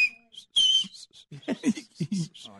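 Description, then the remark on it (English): Two short, airy whistles from a person trying to whistle loudly, a thin steady tone and then a sharper, louder burst, before people start talking over each other. “I've actually pulled up a document here, Googled how to whistle loudly.”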